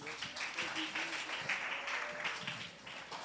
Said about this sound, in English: Why don't we just clap our hands to the Lord?